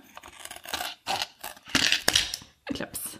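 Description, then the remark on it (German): Scissors cutting the small black corner off a plastic tray that held a kit's contents: a series of crunchy snips and scrapes in uneven bursts with short pauses, ending in a sharp final cut. “wir haben jetzt die kleine schwarze Ecke von dem Schälchen, in dem alles drin war, abgeschnitten.”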